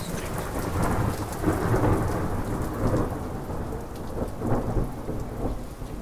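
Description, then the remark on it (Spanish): Steady rain starts pouring down with low, rolling thunder rumbling through, a dense continuous wash of sound with swells of deeper booms. No one speaks. “Ah, bueno, se largó a llover.”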